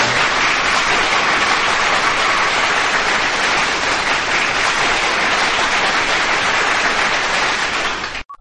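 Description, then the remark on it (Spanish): An audience applauds Schumacher steadily for about eight seconds, a dense, even wash of many hands clapping at a constant loud level before it cuts off abruptly. No one speaks over it. “Sí amigos, démosle un aplauso a Schumacher.”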